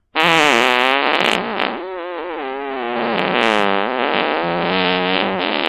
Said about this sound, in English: skill saw fart.